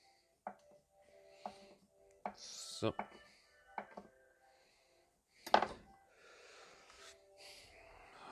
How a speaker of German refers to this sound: Ähm, genau, dann noch kommt der Feta. Ganz wichtig. Da schneidest du halt einfach mal so ein Viertel runter. Und dann schneidest du dir einfach in kleine Würfelchen.